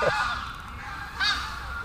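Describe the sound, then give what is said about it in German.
Geese honk in a couple of nasal calls, one at the start and another just past the middle, over a steady outdoor background with no talking. “Jetzt kommt ja. schon wieder das, die Gänse.”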